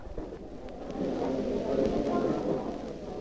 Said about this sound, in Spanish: Ya en la plaza de Rouen crepitan las llamas de la hoguera.